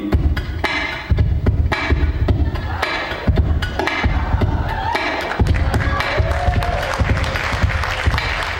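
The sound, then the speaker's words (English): A steady, driving percussive beat tapped out on a ukulele's body and strings, with deep thumping bass-drum-like hits alternating with sharp slaps in a continuous rhythm, loud. “put it all together and you get the, the ukulele drum beat.”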